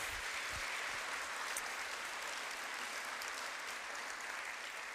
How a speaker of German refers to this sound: Lass uns einen herzlichen Applaus geben.